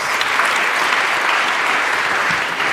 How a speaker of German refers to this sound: Applaus.